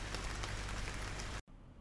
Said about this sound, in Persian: و او در ایستگاه اتوبوس نشسته است و مانند همیشه منتظر است اما اتوبوس ها می آیند و می روند و او هنوز انتظار می کشد و سقفی شیبدار که باران را به جایگاه قایش سوق می دهد نشسته است و به زرباهنگ باران گوش می دهد